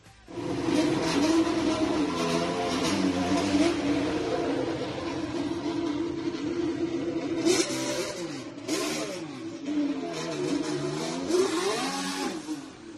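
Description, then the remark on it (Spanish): A Formula 1 car pulls away from the pit box, its engine holding a steady high whine before revving up and down sharply, loud, with no voices present. “así sonaba saliendo del box Carlos Sainz”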